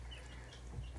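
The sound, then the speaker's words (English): Faint, high-pitched peeping of growing baby chicks kept in a room of a house, scattered soft chirps over a steady low indoor hum, with no one talking. “Well, you can really hear the chicks because they're getting bigger and bigger, huh?”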